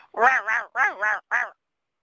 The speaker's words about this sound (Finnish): Ja niinhän sieltä, kun minä mutkaan, mutkaan tuli kettu oli, emäkettu oli niin minusta noin viiden metrin päässä. Ja se huuteli siinä samassa.